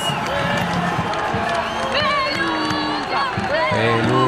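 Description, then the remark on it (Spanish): A loud crowd ovation for Argentine President Javier Milei appearing on a balcony: a continuous roar of many overlapping voices cheering and shouting, with individual yells rising above the din throughout the few seconds. “La ovación de la gente, los escuchamos.”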